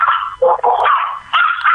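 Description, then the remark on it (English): Several dogs bark and yip in a dense, loud, overlapping jumble, with high-pitched whining mixed in and a brief dip in the middle before the noise picks up again. “I'm imagining ten dogs going by on a scooter right now,”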